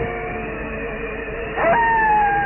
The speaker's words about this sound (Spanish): Entre los negros rubarones que cubrían el cielo, surgía a intervalos la luna llena y los lobos aullaban, aullaban en el cementerio.